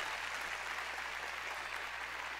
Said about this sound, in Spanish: ¿Cuánto le puede decir gracias, Señor? Dios ha sido bueno con nosotros. Dele fuerte ese aplauso al Rey. No nos podemos quejar.